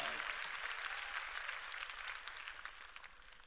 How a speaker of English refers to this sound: Let's praise the Lord again for Shelby Five on this morning. Give them a West Angeles applause.